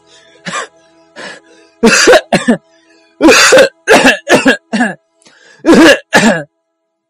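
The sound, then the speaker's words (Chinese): A series of harsh, raspy coughs from a sick mother monkey in a children's story, in uneven clusters, two or three at a time with short pauses between, loud and breathy, with a couple of fainter throat-clearing sounds at the start. “斑马大叔说了，燕窝能治好您的咳嗽。”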